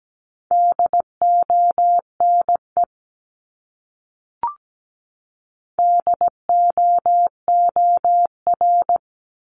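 Morse code sent as a steady mid-pitched tone at about 17 words per minute, with crisp dots and dashes in two bursts, a brief click between them, and no voices.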